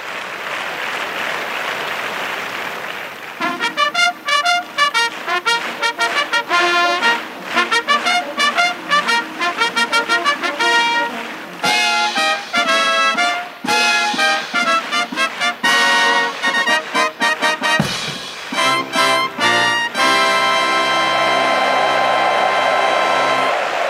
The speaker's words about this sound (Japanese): 淀京都競馬場に菊花賞のファンファーレが戻ってきました3年ぶりの菊花賞京都開催